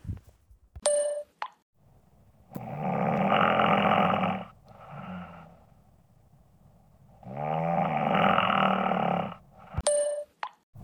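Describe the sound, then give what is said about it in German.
Two long, loud, rasping snores with a rattling breath in between, bracketed by a short bright ding-like chime at the start and end. No talking. “wusste nicht, dass ich das Tool da im Intro im Schnarchen erfunden habe.”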